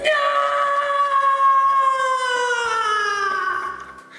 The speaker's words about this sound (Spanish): Bueno, Annie emite ese grito de horror que no queremos volver a escuchar.